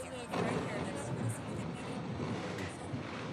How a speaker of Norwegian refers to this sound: Jeg kommer meg nok ikke på jobb i dag, sukker hun, mens lyden av helikoptrene som henger over hodene våre, nesten overdøver det hun sier.